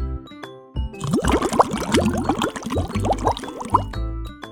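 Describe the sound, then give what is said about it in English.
Rapid bubbling and gurgling as air is blown through a straw into water, a dense burst of popping bubbles lasting a few seconds with a soft breathy rush underneath. “wow, that is making a lot of bubbles.”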